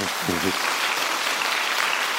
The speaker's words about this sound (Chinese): 感谢你们给我鼓掌